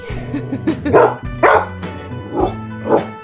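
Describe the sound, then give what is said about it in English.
A dog named Mojo barks four times in loud, sharp bursts spaced unevenly across a few seconds, with a low background hum and no one talking. “I'm sure he would have to come along and bring our dog Mojo.”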